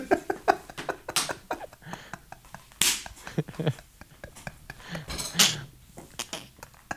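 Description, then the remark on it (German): Sharp, irregular smacks of hands slapping thighs, repeated many times in quick bursts, with some voices and laughter mixed in around them. “Zur Erklärung, das, was man gerade hört, sind vermutlich Schenkel, die geklopft werden.”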